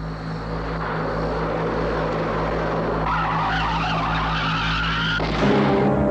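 A car roars along loudly, then a tire blows out and the car breaks into a long, harsh screeching skid that builds over several seconds before an abrupt shift near the end. No voices are heard.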